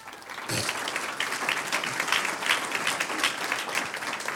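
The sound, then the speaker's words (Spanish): An audience breaks into sustained applause, a dense wash of many hands clapping that starts abruptly and holds steady at a fairly loud level for several seconds. “Un aplauso al que vive.”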